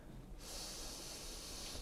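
A single long, deep breath drawn in during a breathing exercise, a steady airy hiss lasting over a second after a brief quiet start, with no talking.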